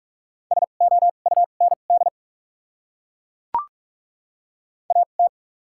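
Rapid Morse code beeps at 45 words per minute with doubled character spacing, spelling common English words in a single steady tone, quick dots and dashes forming short groups, then a long silent gap broken by a sharp click before a final brief burst.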